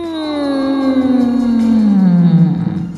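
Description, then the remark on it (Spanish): A voice imitates a roaring motorcycle engine as the sound of the DeLorean arriving: one loud, sustained, buzzing drone that slowly slides downward in pitch over about three seconds, with no talking. “Vale, entendemos que es una moto, bueno, en tu caso es como un motor súper fuerte que llega.”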